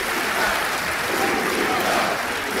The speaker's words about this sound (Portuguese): E esse grito de Viva Portugal, muito, muito aplaudido neste centro de congressos do eh, Estoril. Uh, braços no ar, com esse V de vitória. Grita-se por eh, Portugal.